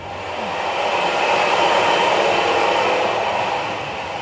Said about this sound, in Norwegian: Nå sitter vi i kafévogna på eh, nattoget på vei til Oslo.